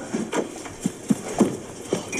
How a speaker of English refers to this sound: Come on in. Stomp your feet first.